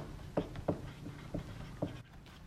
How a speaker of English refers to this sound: I'm going to write that down. Uh, teacups.